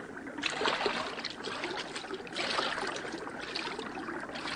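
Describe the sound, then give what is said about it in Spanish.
Water sloshes and splashes steadily as someone wades into a river among reeds toward a floating object, with surges of churning through shallow water. No voices, just continuous wet, rushing movement. “Bueno, métete en el agua y averigua lo que es.”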